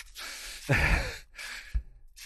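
Heavy, labored breathing of a hiker starting an uphill climb on foot, with repeated breathy inhales and exhales and a couple of dull thuds of slowing footsteps. No one speaks.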